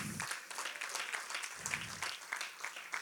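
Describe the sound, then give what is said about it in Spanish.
An audience applauds the King, God, together: a steady crackling wash of many hands clapping at once, sustained and fairly loud for the full few seconds with no one speaking over it. “Dele un aplauso al Rey.”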